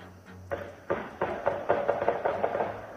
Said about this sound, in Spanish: No, perdón, esto es el audio del ataque. O sea, lo que estamos escuchando son los disparos en la casa. Terrible, de verdad. En la casa del fallecido.